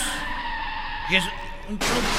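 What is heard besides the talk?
car skidding and crashing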